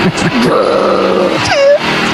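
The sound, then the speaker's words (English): A dark, droning, grungy song intro thick with guttural growls and moaning groans, capped by an eerie sliding wail near the end; loud, dense and continuous, with no talking. “How about that other song they had that's like 30 seconds of growling and horror?”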